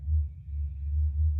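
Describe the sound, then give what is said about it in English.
A neighbor's car passes outside, its deep, steady engine rumble droning for a moment, swelling and easing slightly as it goes by, with no voices over it. “That was the neighbor with her car right there.”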